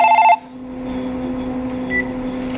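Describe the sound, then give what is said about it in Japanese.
A shop telephone rings with a reservation call: one short, loud electronic trill at the very start, then it cuts off, leaving a low steady hum with no one speaking. “えー、なんと電話でございま”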